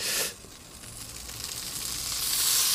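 A bell pepper, already dark underneath and left unturned, sizzles over a grill fire: a steady, bright, crackling hiss that starts loud, drops briefly, then swells louder again. No one speaks.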